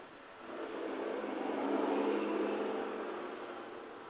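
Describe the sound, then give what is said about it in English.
A steady wash of street traffic in front of a house, heard faint through an open window, rising as a vehicle seems to pass and then easing off. No one speaks. “That's the traffic in front of my house.”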